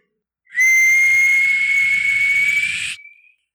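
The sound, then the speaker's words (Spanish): A person imitates the steam whistle of a sweet potato vendor's aluminium cart that passes at 8 at night: one long, shrill, steady blast lasting over two seconds, loud, rising slightly in pitch before trailing off. “Entonces, como que si no me quedaba claro con el pinche chiflido del carrito, me quedó claro este, con tu pinche grito de ¡Camotes!”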